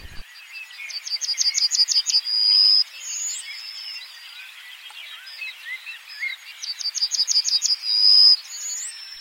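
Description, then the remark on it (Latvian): A small bird sings its song twice in a dialect whose last note rises, each a quick run of repeated trilled notes ending in a longer final note that rises in pitch, over a soft chorus of other birds. “Un te salīdzināšanai, te ir daļa no kartes, kur ir divi citi dialekti. Tā pēdējā nots ir kāpjoša.”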